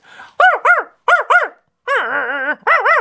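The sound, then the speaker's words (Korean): A person imitates a dog barking: loud, voiced woofs in quick pairs, then a drawn-out wavering howl-like yelp, and another bark at the end, with no talking. “나 그, 그 개소리는 정말 자신 있어.”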